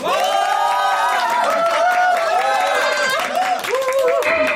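A large crowd cheers and whoops loudly over steady applause after a performance, many voices overlapping in excited shouts that continue without a break for several seconds.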